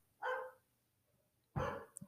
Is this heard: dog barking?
yes